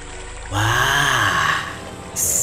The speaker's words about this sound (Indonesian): Ular Sanca akhirnya menemukan sumber suara gemericik air tersebut. Ular Sanca sangat gembira karena menemukan sebuah sungai kecil di saat cuaca sangat panas.